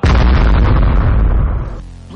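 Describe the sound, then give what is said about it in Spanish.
A loud, booming bomb explosion with a sudden onset and a heavy low rumble, holding for over a second before fading into a dull, decaying roar. “Bomba.”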